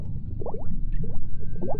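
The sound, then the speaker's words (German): Muffled underwater bubbling and gurgling, with a steady low rumble and several rising bubble bursts, as a person dives down toward the sea floor as fast as she can. “Sie bewegte sich so schnell sie es vermochte auf den Grund des Meeres zu.”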